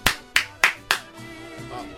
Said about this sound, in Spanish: ¿No van a aplaudir conmigo?